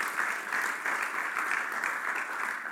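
A steady burst of audience applause, many hands clapping at once in a dense, even crackle that holds at a fairly loud level throughout, with no voices standing out.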